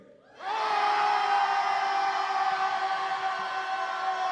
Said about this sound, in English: Okay, can we just yell on the count of three? can we do that? Ready? One, two, three.